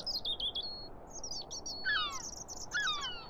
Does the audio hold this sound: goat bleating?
no